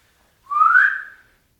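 A single rising whistle from a person, about a second long, sliding upward in pitch and then fading out, clear with silence around it.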